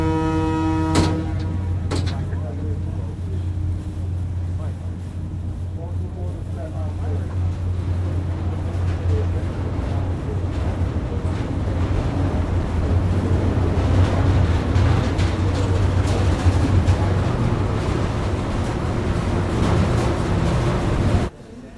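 A ferry boat's engine drones in a steady low hum over a constant wash of water and wind noise, with people murmuring in the background throughout.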